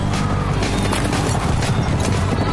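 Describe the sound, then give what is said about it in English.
A thundering rumble of many racehorses galloping at once at the start of a race, dense and loud throughout, with pounding hooves blending into a continuous roar and no voices. “The horses are at the gate.”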